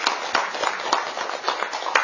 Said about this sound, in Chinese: 请大家掌声祝贺。